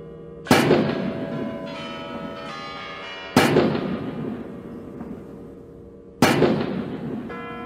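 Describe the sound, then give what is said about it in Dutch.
Three heavy cannon shots of a 21-gun salute, fired from around the Moscow Kremlin, boom out at steady intervals of about three seconds, each with a long rolling echo, while the Kremlin tower bells ring the hour continuously underneath. No voices are heard. “Terwijl de klokken van de Kremlin-toeren het uur luiden, wordt een saluut van 21 kanonschoten afgevuurd vanuit het gebied rond het Kremlin.”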